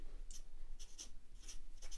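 A pen scratches across paper in a handful of short, quick strokes as a note is written by hand. It is fairly quiet, over a low steady background rumble, with no one speaking.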